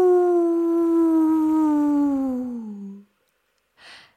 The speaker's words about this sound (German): hörten die beiden Geschwister es plötzlich in der Ferne heulen. Was war das?